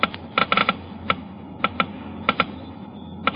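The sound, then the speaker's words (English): Geiger counters clicking as they measure engine wear, first the low wear rate with new RPM motor oil, then the faster rate with conventional oil: sharp, dry ticks arriving at an irregular pace, sometimes in quick clusters and sometimes spaced apart, over a faint low hum with no talking. “Listen now as the Geiger counters click off the difference.”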